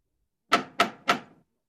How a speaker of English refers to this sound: Mr. Utterson stopped and knocked at the door of one of the houses.